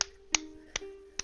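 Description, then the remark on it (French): A small stick or branch taps against a glass four times at a steady, unhurried pace, each sharp click leaving a faint ringing tone that lingers between strikes. Quiet, with no voices. “il tapote le verre avec une branche”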